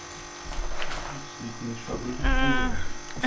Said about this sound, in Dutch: Ik maak nu pas voor mezelf de koffie